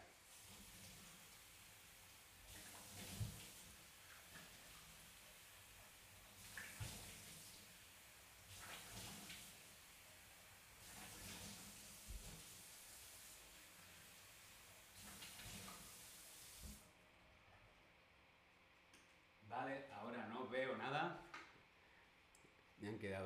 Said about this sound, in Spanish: Vale, una vez que he quitado todo el exceso, nos lavamos la cara, me aclaro la cara con agua tibia. Voy a ir a lavarme la cara, enseguida vengo.